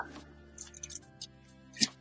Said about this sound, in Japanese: 鍵開けるぞ。